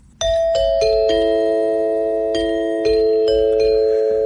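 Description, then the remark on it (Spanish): A short chime jingle identifying the segment Oigamos la Respuesta: bright, bell-like notes struck one after another, each ringing on and overlapping the next, loud with no voices. “Sonido que identifica este espacio de oigamos la Respuesta.”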